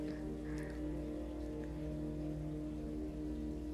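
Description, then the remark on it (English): A toilet flushes, a steady, loud rush of water with a faint tonal hum that holds constant throughout, with no voices present. “My boyfriend just flushed the toilet.”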